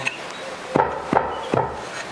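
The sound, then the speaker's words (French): Three firm taps at a steady pace, a mould being knocked against a work surface to settle the mixture and bring air bubbles up to the surface, clear over a quiet background. “pas besoin de taper fort, oui, elle se, voilà. elle se tasse vraiment facilement.”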